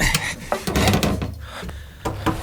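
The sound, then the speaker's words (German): A wooden cabinet door is opened again, with a few sharp knocks and a short rubbing creak of wood over about two seconds; no one speaks. “mach die Tür wieder auf.”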